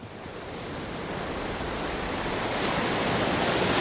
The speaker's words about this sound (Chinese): 浪更猛了，海水像一堵堵倒塌的高墙，接连不断的往船上压去。